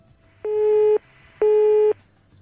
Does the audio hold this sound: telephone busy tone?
yes